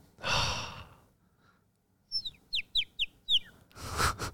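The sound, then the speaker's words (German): A person whistles a quick series of about five chirpy, bird-like calls, framed by a breathy sigh before and after, fairly loud with no talking. “Das war mein innerer Vogel. Das ist mein Abschiedsvogel.”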